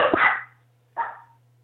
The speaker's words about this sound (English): Those are my dogs barking at the UPS guy.